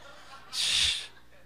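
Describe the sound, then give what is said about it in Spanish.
A voice imitates a snore with one short, harsh, breathy snort lasting about half a second, fairly loud, with quiet before and after. “Y cuando bajó de, orar, oyó los ronquidos, hermano.”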